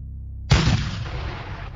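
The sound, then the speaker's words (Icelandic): A single loud cannon shot from a 21-gun salute booms out after a brief pause, fired as the swallow-tailed flag is raised at the Government House, in calm, cold weather; its deep report rolls and fades over the next second. No one speaks. “það var nú samt stór stund þegar að klopni fánin var dregin að hún á stjórnarháshúsinu og 21 skoti skotið.”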